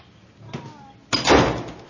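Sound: door being closed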